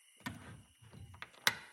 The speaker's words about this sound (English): The door closed and locked, and so did the bolt.